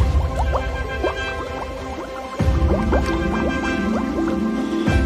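Watery splashing and plopping, full of quick bubbly drips that repeat steadily, with a fuller burst of sloshing about halfway through, as a family of ducks dives underwater in a pond. No voices.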